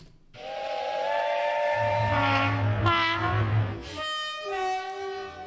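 A train horn blares loudly in sustained, overlapping tones with steam-like hiss, shifting pitch partway through, over a low rumbling engine, like a short train sound effect with no talking.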